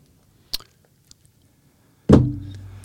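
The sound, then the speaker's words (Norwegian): A mobile phone is slammed down onto a table with one loud, hard thud and a short low rumble after it, preceded by a faint light click. No one speaks. “Um, det var, mobilen som ja, det var mobilen slengte i bordet.”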